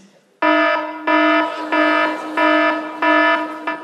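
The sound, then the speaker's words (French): An alarm clock rings loudly, sounding a harsh buzzing tone in rapid repeated bursts, about six pulses in steady rhythm, with no voices. “Qui, a ce réveil matin-ci”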